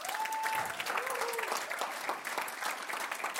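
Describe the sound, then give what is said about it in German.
An audience applauds steadily for the absent campus pastors Alex and Sarah Ernst, a dense wash of many hands clapping at an even level for a few seconds, with a faint whistle-like tone briefly rising above it near the start. “Können wir bitte Alex und Sarah Ernst applaudieren und sagen Dankeschön”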